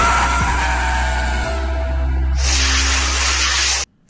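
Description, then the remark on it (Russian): A heavy truck passes and interrupts a speech with a deep, steady engine drone. Halfway through, a loud rushing hiss bursts in, then the sound cuts off abruptly. No voices are heard. “Нам нужно двигаться вперед, говорит Зеленский, но его речь прерывает грузовик”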